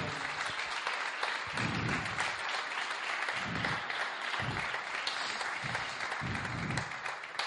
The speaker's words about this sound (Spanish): Dar un aplauso a él.